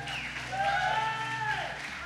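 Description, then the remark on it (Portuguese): A crowd applauds steadily for a couple of seconds, the dense clapping mixed with a few whoops or whistles rising above it. “É, aplauda ele.”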